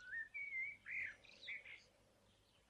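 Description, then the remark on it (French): Small birds sing in a forest, a few clear whistled notes and trilling chirps in short phrases, fairly faint over a quiet, soft background. “Je crois que tu n'entends pas non plus combien le chant des petits oiseaux est mélodieux.”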